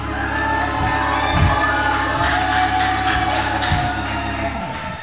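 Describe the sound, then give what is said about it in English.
An audience claps and cheers in a steady, continuous wash of crowd noise lasting several seconds, loud throughout and fading slightly at the end, over a low steady hum. “Don't clap for me, clap for Jesus.”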